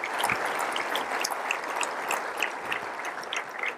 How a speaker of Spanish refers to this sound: Dele un aplauso al Señor de la Gloria, Jesucristo. Gracias, Señor.